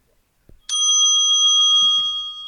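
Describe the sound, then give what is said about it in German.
A single bright quiz buzzer bell strikes sharply and rings on with a steady, sustained metallic tone, loud, after a soft thump; no voices are heard. “Habt ihr es gehört? Ja, ich habe auch nicht gebuzzert, du kannst einfach.”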